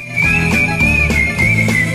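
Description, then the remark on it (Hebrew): A bright, cheerful whistled melody holds a high, gently wavering pitch, riding loudly over a bouncy rhythmic backing with a steady beat and no talking. “ושני הסוסים וצלילי השריקה שמרנינה את הלב.”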